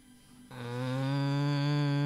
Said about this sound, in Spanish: Sobre todo porque esa vaca rechinaba mucho y ese sonido le quedó como parte de su forma de comunicarse.